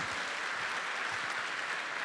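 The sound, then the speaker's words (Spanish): A church audience claps during a sermon, giving applause to God, producing a dense, continuous wash of many overlapping hand claps at an even, fairly loud level throughout, with no voices standing out. “¿Por qué no le damos un fuerte aplauso al que vive por los siglos de los siglos?”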